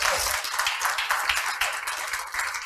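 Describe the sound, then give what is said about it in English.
An audience at Encounter Church clapping their hands together to welcome online viewers, a dense, steady wash of many overlapping claps with a few sharper individual hits, sustained and fairly loud throughout. “Why don't you give God a hand clap and welcome them in today?”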